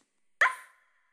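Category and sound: animal, dog yapping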